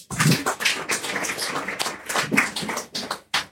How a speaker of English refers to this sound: So, a round of applause for Albert.